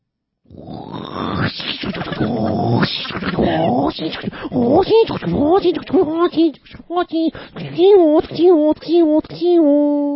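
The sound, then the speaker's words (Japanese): A man imitates a tsukutsuku-boshi cicada with his voice in a call-imitation contest: a raspy, buzzing drone first, then a quick run of rising, warbling repeated calls in a steady rhythm, loud. “つくつく帽子のじゃ泣き方やりまーす。”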